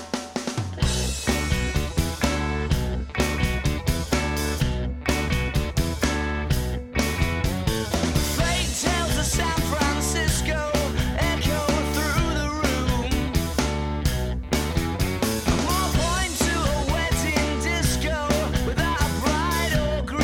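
A loud indie rock song plays with driving drums, heavy bass and dense guitars, with a male voice singing over the steady, energetic beat throughout.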